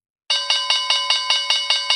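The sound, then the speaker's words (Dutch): A bright electric bell rings rapidly and continuously, signalling the closing question round of a discussion, with about nine quick, evenly spaced strikes blending into a loud trill that starts abruptly after a moment of silence. “Ja, daar is hij de bel van eh, de rondvraag.”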